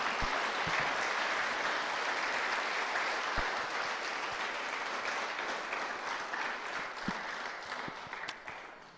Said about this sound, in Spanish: A ver, denle un aplauso a los que, a los que están despiertos.